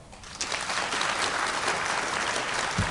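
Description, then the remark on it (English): A live audience applauds to vote on which science news item they think is fiction, a dense, steady wash of many hands clapping at once, fairly loud and sustained for the full few seconds with no voices standing out. “coli is fiction, applaud.”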